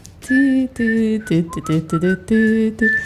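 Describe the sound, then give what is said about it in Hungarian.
A person whistles the main theme of a song alone, a phrase of sustained notes rising and falling in a clear melodic pattern, fairly loud. “Ezt, mi a fő témája? Mert ezt most nem tudtuk beszerkeszteni. Fütyüljem, mert én Persze. fütyülöm benne.”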